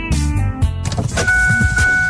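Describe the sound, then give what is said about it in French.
A key is turned in a new Nissan car and its engine cranks and starts, with a mechanical whir and a burst of noise that settles into a steady running hum, no voices present. “Lorsque vous tournez la clé de votre auto neuve chez Saint-Nicolas Nissan, vous ne faites pas que partir la voiture, vous démarrez l'aventure.”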